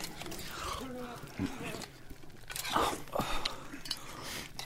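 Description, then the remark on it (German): Biting and chewing of crusty bread: irregular crunchy bites and moist mastication sounds over a few seconds, with faint voices murmuring underneath. “Als ob man einen Seufzer kaut.”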